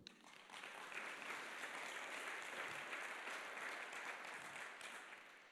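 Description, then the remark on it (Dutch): A crowd applauds steadily for about five seconds for the speaker's daughter, a dense, even wash of many hands clapping that holds at a constant level, then tapers off at the end. No one speaks. “Applaus voor mijn dochter.”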